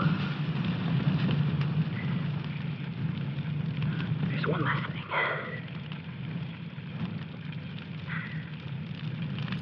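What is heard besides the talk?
fire burning and crackling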